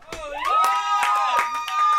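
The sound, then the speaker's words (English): Scattered handclaps, about half a dozen sharp claps from people behind studio glass, ring out over sustained, sliding tonal sounds like cheering voices, fairly loud, with no clear speech. “Round, of applause because they were all doing it behind the glass.”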